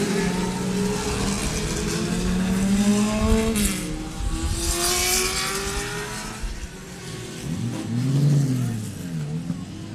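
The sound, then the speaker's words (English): Vintage race cars rev loudly and roar past one after another, engine pitch rising and falling as they approach and recede, with a throaty pass near the end. “I'm going to let them go past.”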